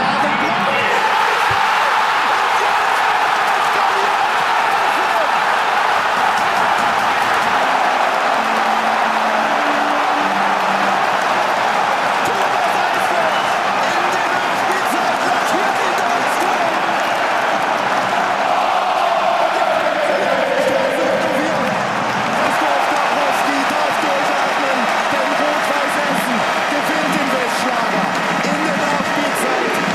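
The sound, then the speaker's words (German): A football stadium crowd at Hafenstraße in Essen roars without letup after a winning goal for Essen in the third minute of stoppage time, a dense, loud wall of cheering and shouting that swells slightly but never fades, with voices blurred into the din. “das Siegtor fällt für Essen durch Thomas Eisfeld. Da war Eruption an der Hafenstraße. Stimmungsvolle Kulisse”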